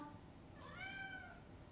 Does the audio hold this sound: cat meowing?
yes